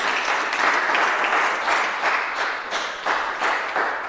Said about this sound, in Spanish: Así que yo quiero que le demos un aplauso a estos jóvenes que nos han acompañado hoy. Qué lindos. Y a los niños.